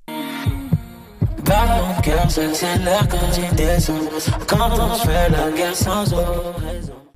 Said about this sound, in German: Und äh, wenn am Ende des Songs dann noch dieses Herzschlagen in den Beat eingebaut wird, dann ist das wirklich, dann ist das so Weltklasse-Niveau.